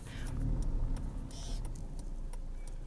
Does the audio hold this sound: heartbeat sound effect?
no